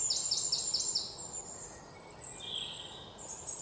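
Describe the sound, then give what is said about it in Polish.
Birds call outdoors on the bank of the Vistula river in central Warsaw in summer, in a quick run of high, repeated chirps, followed by a sustained thin whistle and another call, with a steady hiss of insects or ambient noise underneath. No one speaks. “Ptaki również mają swój słownik, mają różne swoje ptasie wypowiedzi na różne okazje.”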